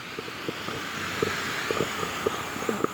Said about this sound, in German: Okay, jetzt müssen wir einmal hier über die Straße rüber. Warten mal ganz kurz, bis die Autos durch sind.